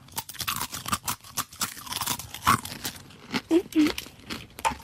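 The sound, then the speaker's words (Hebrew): Loud crunching of someone biting into and chewing an apple, the first chew in a guessing game between a fig, a cracker and an apple, a series of irregular crisp bursts lasting several seconds, with brief murmured voices around it. “אוקיי, זו הייתה הלעיסה הראשונה.”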